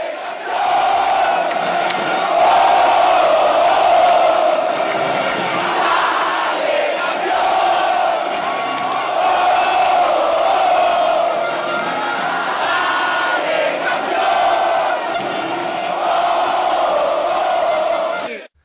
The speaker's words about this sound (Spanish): El equipo rival saltó a la cancha. Ensordecidos, por los cánticos de 45 mil personas que asistieron esa noche al estadio Nemesio Camacho El Campín.